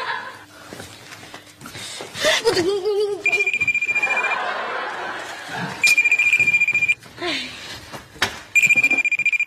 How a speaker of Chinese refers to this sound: 打我手机了，关机。